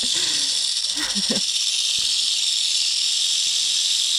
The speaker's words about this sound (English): That is one real angry snake. That's a super that's a super angry snake. He's super irritated. He's angry AF. Obviously they rattle their their rattles. their baby their baby rattles. and they hiss, right?